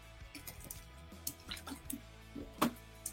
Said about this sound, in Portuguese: Beleza, agora voltando para o nosso segundo bloco, respira, vou beber minha aguinha aqui, dois segundos para beber minha água.